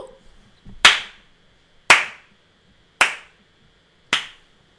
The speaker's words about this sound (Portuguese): Peço o vosso aplauso.